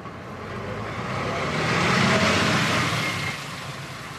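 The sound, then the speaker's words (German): A bus chartered by striking workers to travel from Berlin Mitte to Potsdam drives past with a steady engine rumble and road noise that swells to a peak midway, then eases off slightly. No one speaks. “Die Ironie der Geschichte, die S-Bahn nach Potsdam fährt nicht wegen Streik, deshalb mussten die Streikenden einen Bus chartern.”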